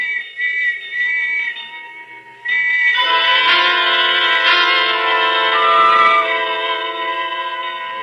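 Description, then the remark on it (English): Shrill, sustained whistles blow, then a louder, fuller chorus of whistles and ringing bell tones swells in and holds steady all around, continuous, with no talking. “And the whistles and bells all around.”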